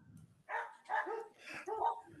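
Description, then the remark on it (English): Small dogs outside a window yapping in four quick, high-pitched barks over about two seconds, fairly clear and moderately loud, with no one talking over them. “No, they're the little... dogs outside my fucking window.”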